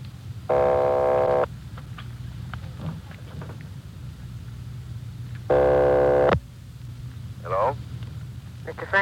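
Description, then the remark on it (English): A telephone ringing heard down the line on a long-distance call from Los Angeles to Nampa: two long, buzzy ring tones about four seconds apart, each lasting roughly a second, over a steady low electrical hum. “Keep ringing, 761. They're ringing the number, Sergeant.”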